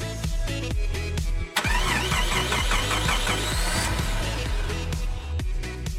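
A car engine cranks and starts, then revs loudly with rising, whining pitch sweeps before settling into a steady, rumbling idle. Prominent, with no voices.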